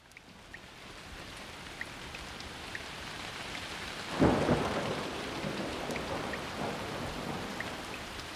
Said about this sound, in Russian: К счастью, ночи теплые, ты не промозгла насквозь под дождем.